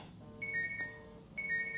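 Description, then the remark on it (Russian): A smartphone's find-my-phone alert, triggered by pressing and holding the Home button on a band for a couple of seconds, sounds in two repeating bursts of high, bright electronic beeping tones with rich harmonics, steady and fairly loud, with no talking. “Для того, чтобы найти ваш смартфон, необходимо кнопку «Домой» нажать и подержать пару секунд. Поиск смартфона включено.”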